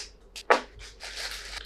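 Brief handling noises as a newly bought microphone is fitted on, without its stand: a sharp click, then soft scraping and rustling of parts being fitted, fairly quiet overall with no talking.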